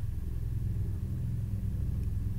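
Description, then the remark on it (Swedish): A helicopter flying over a house gives a deep, steady droning rumble that holds at an even level for the whole stretch, loud enough to fill the house, with no voices and no breaks in the sound. “Varför är det en störande helikopter här?”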